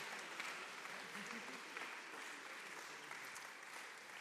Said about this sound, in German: Ja, ich lade euch ein, wirklich, da unsere Reading-Studenten mit einem warmen Applaus zu begrüßen, sie zu ermutigen und herzlich willkommen heißen.